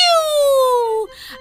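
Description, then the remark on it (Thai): A voice imitates one loud sneeze of a little piglet: a long, drawn-out wavering vowel that slides downward, then a short breathy, hissing burst to finish. “ลูกหมูตัวเล็กจามเสียงดังสนั่นหลายครั้ง”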